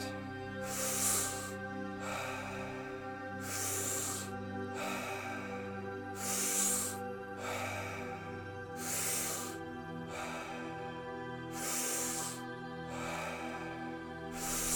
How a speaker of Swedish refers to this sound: Ingen paus mellan inandning och utandning. In, ut. In, ut. In, ut. In i magen. In i bröstet.